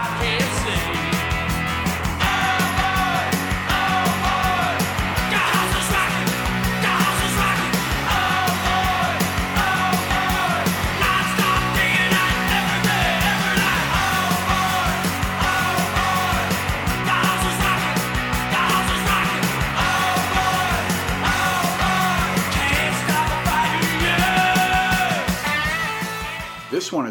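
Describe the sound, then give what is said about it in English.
A loud, straight-ahead rock song plays throughout, thick with crunchy distorted guitars and a steady driving beat, with a shouted lead vocal riding on top. “more of an old school, straight ahead rocker with loud, crunchy guitars”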